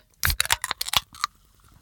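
A can of sugar-free Dr Pepper Zero opened with a quick run of sharp metallic clicks and cracks lasting under a second, ending in a brief softer pop, with no talking.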